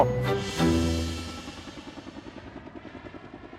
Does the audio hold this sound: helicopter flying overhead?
yes